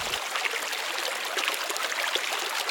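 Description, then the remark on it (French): A steady rush of flowing water from the Namyun river, which runs through the village of Dien Bien Phu at 400 metres altitude in a wide valley of rice fields; a continuous babbling wash with no pauses or voices, holding an even level from start to finish. “Au milieu, un village, celui de Dien Bien Phu, situé à 400 mètres d'altitude, parcouru par une rivière, la Namyun.”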